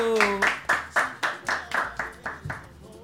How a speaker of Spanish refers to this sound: Aplauso, aplauso, aplauso.